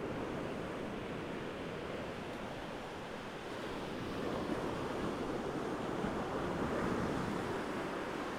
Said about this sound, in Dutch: Mocht je het ruisen van de zee horen, geniet. Ik ben heel even stil.